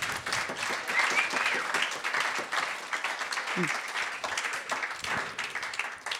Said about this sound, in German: Das heisst, Kufalis hat eine Gourmet-Punktzahl von 11. Gratulieren. Gratulieren. Applaus bitte.